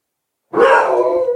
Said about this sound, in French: Ah. Oui, le chien Oui. Ah non, tu vas pas aboyer plus, que ça. C'est là vraiment un aboiement qui ressemble à rien. Mais ton chien n'a aucune allure de manière générale.